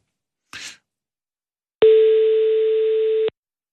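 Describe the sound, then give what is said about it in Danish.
A telephone ringing tone sounds once while calling: a steady, mid-pitched hum-like tone lasting about a second and a half, preceded by a brief soft rustle. No one speaks. “Så jeg ringer lige til ham.”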